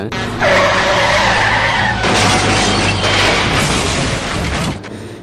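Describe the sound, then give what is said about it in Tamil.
A large water tanker lorry skids on a road with a loud, sustained tire screech, then crashes with a couple of heavy, noisy impacts and scraping debris, all loud, with no voices. “வழியில் தண்ணி லாரி வரது கூட தெரியாமல் நடு ரோட்டில் ஃபோனை பார்த்துட்டே வந்த ஒரு அப்பாவையும் பையனையும்”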